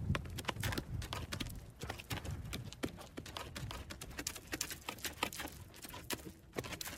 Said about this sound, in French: Et tout à coup, j'aperçois au loin comme un cow-boy, un homme à cheval qui avance, mais qui avance très lentement.